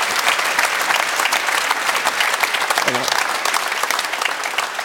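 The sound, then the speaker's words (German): A studio audience claps steadily for about five seconds, a dense, even wash of applause that stays loud throughout, with a brief voice faintly surfacing partway through. “So also auf dem Bild hätte man eigentlich auch mal klatschen dürfen.”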